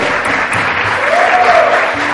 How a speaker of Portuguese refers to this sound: Hoje é dia dos, dos pais. Quem é pai aqui? Queria uma salva de palmas para os pais. Uhul!